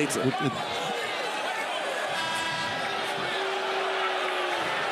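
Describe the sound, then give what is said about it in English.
An arena crowd at a Utah Jazz basketball game reacts with disapproval to a reversed out-of-bounds call, a loud, continuous roar of many voices holding steady for the whole stretch, with a few sharp knocks right at the start. “The Crowd doesn't like it.”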